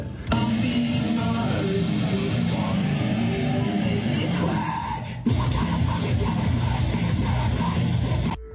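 Loud, dense heavy rock plays continuously, with distorted guitars and crashing cymbals forming a thick wall of sound that briefly drops and surges back in near the middle.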